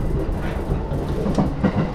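Steady low rumble inside a Yamanote Line commuter train, with rhythmic clickety-clack of wheels over rail joints, continuous, with no voices.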